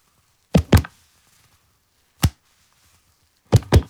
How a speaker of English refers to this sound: I really think it was just using my hands, hitting my knees, something like that.